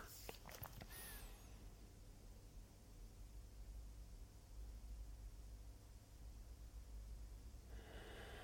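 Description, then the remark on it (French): Slow, quiet breathing through the nose during a 15-second calming breathing exercise, a soft airy hiss that swells gently and continues without pause, with no talking over it. “c'est juste de la respiration lente et par le nez.”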